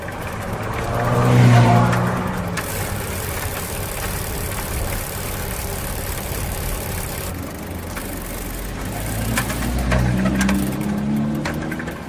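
Heavy road traffic in central Linz with cars rushing past, a loud pass near the start and another swelling toward the end over a steady, dense engine hum.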